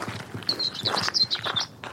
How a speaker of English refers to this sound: Yeah, all right. Well, look, we'll talk later on, shall we? Some of these birds, I don't know.